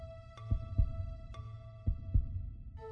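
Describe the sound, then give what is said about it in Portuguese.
A heartbeat thumps in two low, muffled lub-dub pairs, fairly loud, over a steady tonal hum with a couple of faint ticks. “Tudo estava quieto ao meu redor e dava para escutar muito bem o meu batimento cardíaco.”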